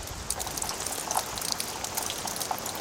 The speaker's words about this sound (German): Ihr Gewebe sieht aus wie ein wild gehäkelter, überdimensionierter Topflappen, acht Meter lang, vier Meter hoch. An Fasern verfangen sich Wassertropfen. Nach und nach kullern sie in eine Rinne.